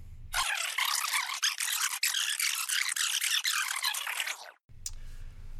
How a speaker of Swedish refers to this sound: Då sätter vi igång äggklockan och nu kör vi!